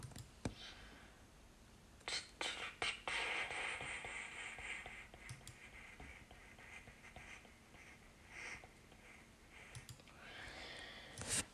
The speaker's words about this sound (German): Achso, ich der jetzt mal einfach nur hier klickt.